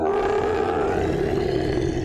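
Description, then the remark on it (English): A loud roar of the Jabberwock, a monster out on its morning walk, deep and growling, holding steady for about two seconds with a rough, rumbling texture and no voices over it. “Oh, that was just the Jabberwock.”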